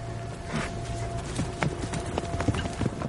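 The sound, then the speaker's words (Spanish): Horses' hooves of an advancing army of thousands of Christian troops on foot and on horseback, with the king riding at the front: dense, overlapping clip-clops thudding at an uneven, steady pace over a low continuous rumble, with no voices. “Miles de tropas cristianas avanzan a pie y a caballo.”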